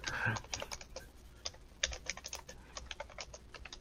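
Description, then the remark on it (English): Rapid typewriter keystrokes clatter in an uneven burst of crisp clicks and taps, with faint background murmur underneath. “this kid brings out a typewriter in a class, and everybody's like, the hell is that?”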